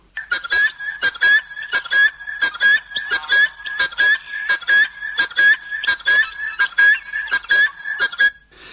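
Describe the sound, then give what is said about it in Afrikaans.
A helmeted guineafowl gives a loud, harsh, rasping call over and over in a steady, rapid rhythm, alone, with no talking. “Dit is uiteraard die geluid as jy Sondagmiddag wil slaap dan sit daar so 'n tarantaal in 'n peperboom voor jou kamervenster en roep uur na uur.”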